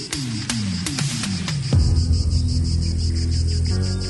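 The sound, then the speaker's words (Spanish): A cicada's steady, high-pitched chirring drone runs through the whole clip. Rhythmic thumps and a low musical tone play beneath it, with no one speaking. “por ese sonido de cigarra y también de una de las canciones sin duda del año.”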